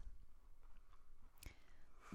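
Close, quiet chewing with soft wet mouth sounds and one sharper crunchy click partway through, no talking.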